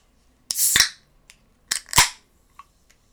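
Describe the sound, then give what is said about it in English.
Crisp cracks of a drink can being opened, each followed by a short fizzy hiss, happening twice in a row with faint clicks afterward and no talking. “I need to open another drink.”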